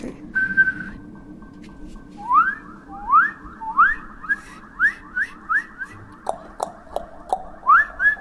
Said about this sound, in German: Jetzt habe ich ganz viele Wiederholungen eingestellt. Jetzt kann man nämlich Musik machen. Pass auf. Du, du, du, du. Und jetzt pfeifen wir was?